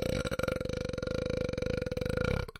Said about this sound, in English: Well, I can see what a burp sounds like. It's like, uh,